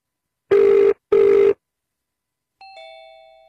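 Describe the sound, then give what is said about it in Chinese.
A telephone rings in two short, buzzy bursts, then a clear, bright chime sounds and slowly fades as the call connects. No one speaks. “哦，居然通了。”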